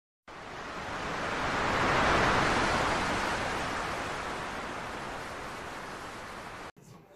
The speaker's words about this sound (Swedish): Jag måste bara säga här att det lät väldigt roligt att det lät nog under vattnet. Alltså det, låg, det lät väldigt roligt måste jag säga.